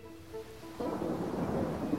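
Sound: heavy rain storm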